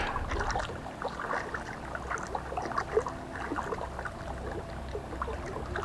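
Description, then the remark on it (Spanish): Continuous irregular water splashing and sloshing in a lagoon at 5 in the morning, like someone swimming or paddling, with small bursts throughout over a low steady rumble; no voices. “escuché un chapoteo, como si alguien estuviera nadando en la laguna.”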